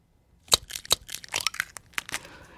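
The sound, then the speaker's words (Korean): An eggshell cracking: two sharp taps followed by a quick burst of brittle, crunchy crackles and a soft crinkling tail, moderately loud with no voices. “이거 맞춰주시는 게 아니고 이게 계란 깨는 소리입니다.”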